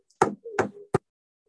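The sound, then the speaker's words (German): Three solid knocks on a wooden table, fairly loud, spaced unevenly over about a second, with the last one sharper and shorter. No one speaks. “Ich kann jetzt auf den Tisch klopfen.”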